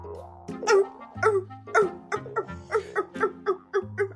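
A seal barks in a quick series of about nine honking calls, each short and harsh, loud and evenly rhythmic, over a low steady droning tone that shifts pitch a few times.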